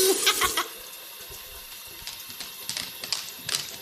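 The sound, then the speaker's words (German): Water runs steadily from a tap with irregular splashes and small knocks as paws are held under the stream and washed; moderately loud, with no voices. “doch schnell die Pfoten und das Wasser halten, schön waschi-waschi machen.”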